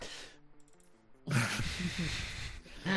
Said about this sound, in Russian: Если вы немножечко прислушаете, услышите звук э, чавканья, это … ест хлеб Паули.